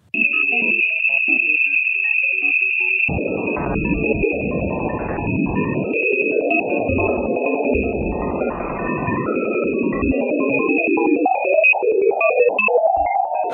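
A steady high electronic whine runs throughout while, after a few seconds, a dense warbling, synthesizer-like wash of fluctuating tones swells underneath, loud and continuous with no voices: magnetic field fluctuations from the interaction of Ganymede's and Jupiter's magnetic fields, measured by a space probe and converted into sound.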